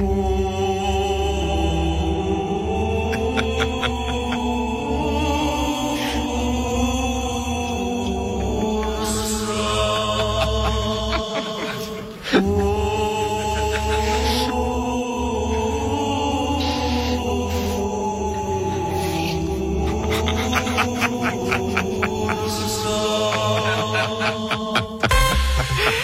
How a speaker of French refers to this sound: La chorale du Conseil fédéral est au top. Bon, prévision de la visite de Guy Parmelin à Ursula von der Leyen à Bruxelles. Elle chante surtout du chant grégorien ces jours-ci. La chanson s'appelle Ursula.